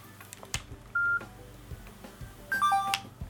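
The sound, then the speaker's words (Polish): An electronic charging device beeps as one of the two devices it is charging is switched off: one steady mid-pitched tone, then a quick three-note chime stepping downward in pitch, over a low background hum with no talking. “Ten sam dźwięk. Wyłączam jedno.”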